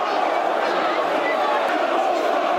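A football crowd bays loudly for a red card, a dense and unbroken roar of many voices that holds steady for the whole moment without letting up.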